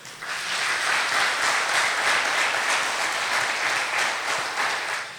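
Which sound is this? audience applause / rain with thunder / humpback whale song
audience applause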